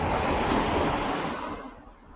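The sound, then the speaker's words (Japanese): A car passes on a road in Sapporo, Japan, on a cloudy morning, heard while walking along the roadside; a loud broad whooshing rush of tires that holds steady, then fades away over the last second, with no voices. “ちょっと道路沿いを歩いてるんで、結構車の音がするかもしれません。”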